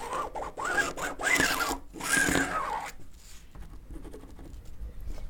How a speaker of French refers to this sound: Donc là, tu as tracé un trait sur le tissu.